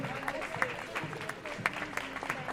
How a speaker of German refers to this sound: Applaus, prosim.